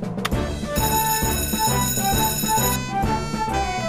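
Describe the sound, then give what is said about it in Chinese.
An alarm bell rings loudly and continuously for a few seconds, with a dense metallic clang and a steady, pulsing rhythm underneath. No one speaks. “又有警报，可惜我今天放假，但我得把这活儿干完。”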